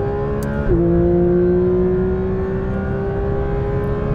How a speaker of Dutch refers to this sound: Jawel, bijna ja, 9000 toeren. atmosferische Atmosferische zescilinder boxermotor die 9000 toeren mag draaien. Waar vind je dat nog? Nou ja, bij Porsche. 525 eh, pk sterk. We rijden overigens in Italië op het Misano World Circuit.